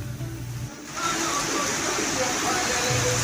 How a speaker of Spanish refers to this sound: Me dicen que está lloviendo en puñal, fuertes vientos, vamos a escuchar.